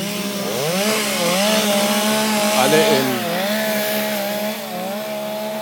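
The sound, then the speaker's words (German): Chainsaws, carried by half of a group of six young men in rain capes, roar steadily while cutting wood, their engine pitch rising and dipping as the blades bite, loud and continuous throughout, with a brief voice faintly underneath. “Ich bin jetzt sechs junge Männer, die Hälfte mit Motorsägen”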